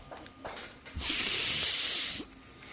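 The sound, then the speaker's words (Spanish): A voice imitates heavy breathing with the mouth: a few short, soft breaths, then one long, loud, hissing exhale lasting over a second before cutting off. No words are spoken. “Yo hago tu respiración, boludo.”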